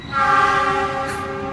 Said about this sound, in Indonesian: ingin nunjukin bahwa eh, kereta lagi coy ya ini